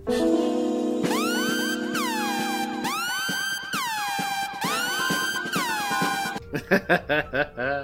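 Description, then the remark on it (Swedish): A loud, dramatic siren-like alarm sound effect, likened to the Kill Bill sound: a sustained blaring tone gives way to five repeated swooping wails, ending in a quick burst of choppy, pulsing notes. “Eller Kill Bill-ljudet kan ni också tänka er.”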